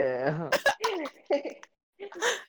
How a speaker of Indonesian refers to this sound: Bersin bersin mulu dari tadi nih.